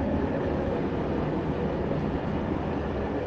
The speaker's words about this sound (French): Vous l'entendez peut-être, je suis dans un train.